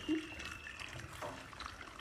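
Three tablespoons of warm water being spooned into a measuring cup, with soft trickling and small splashes running continuously through the moment at a fairly quiet level.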